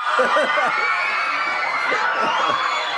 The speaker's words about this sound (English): if you're wondering what all the cheering is about, it's because Jeff Kinney has just produced something all these kids have been waiting for. Like you see videos of him, and he's like high fiving all the kids, like running through this crowd.